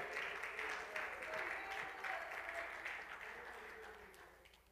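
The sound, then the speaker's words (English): A church audience claps their hands to praise the Lord in a dense, steady wash of applause lasting a few seconds, with a faint murmur of voices underneath, gradually thinning toward the end. “Come on, let's clap our hands and praise the Lord.”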